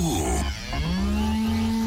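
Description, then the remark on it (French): A cow gives a single long, low moo that rises slightly in pitch and holds steady, loud, over a faint bustling background, at the 2016 agricultural show (Salon de l'agriculture) among cows, sheep, straw, farmers and thousands of visitors. “Des vaches, des moutons, de la paille, des agriculteurs, du fromage, des milliers de visiteurs.”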